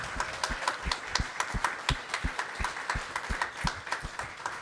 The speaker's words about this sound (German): Hat es euch gefallen bis jetzt? Weil dann können wir gleich nochmal einen Applaus raushauen.